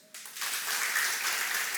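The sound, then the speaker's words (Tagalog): A crowd breaks into applause to praise God, a dense, steady wash of many hands clapping that starts abruptly and holds at an even level without any voices. “Sige nga, pakinggan ko nga yung palakpak sa Diyos.”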